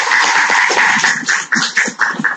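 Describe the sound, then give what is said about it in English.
An audience at a talk applauds steadily after the speaker promises not to belabor the I, Pencil story: a dense wash of many hands clapping at once, loud and sustained for a couple of seconds with slight swells and dips toward the end. “I've, I've never offered to not say something and been applauded for it before.”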